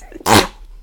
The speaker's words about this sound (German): Aber ich muss niesen.